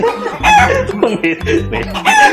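Chickens cluck in quick, overlapping bursts while a rooster crows, all fairly loud, a busy chorus filling the short stretch.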